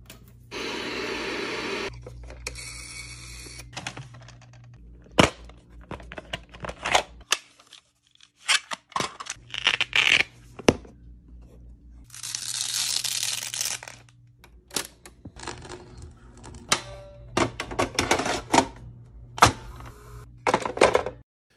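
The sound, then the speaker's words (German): Mechanical sounds of cassettes being pushed into a VCR and a tape deck: sharp plastic clicks, clunks and brief whirring bursts in irregular succession over a low electrical hum, with no talking. “Von Kassette in den Videorekorder, ins Tape Deck und so weiter rein.”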